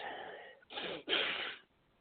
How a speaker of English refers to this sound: Ugh, having trouble breathing here. I hate having a cold.